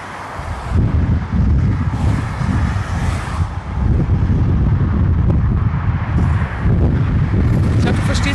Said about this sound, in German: Der Wind, der scheiß, der scheiß Ich habe gar keinen Windschutz drauf. Ich habe den Windschutz ja. zu Hause gelassen.